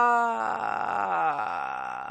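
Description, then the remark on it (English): A single voice demonstrates vocal fry, the basis of fry screaming: it holds a steady sung vowel, then slides lower and slows into a crackling rattle of vocal fry that continues to the end, with no other talking. “Uh, and vocal fry is kind of like where you slow your voice down.”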